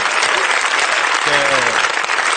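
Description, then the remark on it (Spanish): Loud, dense applause from an audience for a band fills the whole clip, a steady wash of clapping with a brief voice rising faintly underneath midway. “Venga, un aplauso para esta banda, por favor.”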